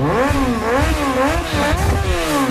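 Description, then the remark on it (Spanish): A motorcycle engine revs loudly, its pitch rising and falling in repeated surges for a couple of seconds, with no voices over it, in an advert for Accesorio Plus motorcycle parts. “¿Te apasionan las motos? ¿Lo tuyo son las dos ruedas?”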